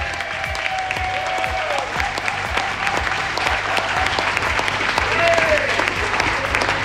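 An audience applauds a municipal councillor, clapping steadily throughout, a dense, sustained wash of applause that swells slightly toward the end, with a few faint whistles and tones rising above the clapping.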